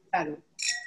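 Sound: glasses clinking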